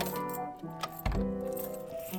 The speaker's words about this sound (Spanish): Va un poco dando traspiés. Al abrir, se le caen las llaves. Se inclina para recogerlas